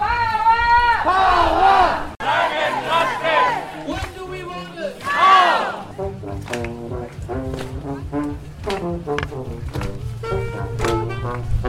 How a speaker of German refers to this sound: Unweit von Lützerath entfernt versammelt sich die Menge. Es sind 30.000 oder mehr, die der Kälte, dem Wind und dem Regen trotzen.